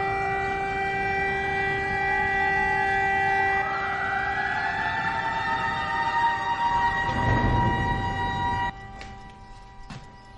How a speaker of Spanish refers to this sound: En otro momento, las sirenas del puerto se escuchan desde todos los puntos de la ciudad. Un gran barco se acerca por el agua hasta el puerto.